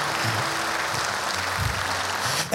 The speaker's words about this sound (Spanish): Aplauda.